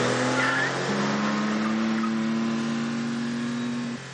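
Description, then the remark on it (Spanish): A convertible car's engine drones loudly and steadily for about four seconds as it accelerates to draw level with another car, a low humming tone over a wash of road noise, with no voices. “desiste y acelera hasta ponerse a su altura.”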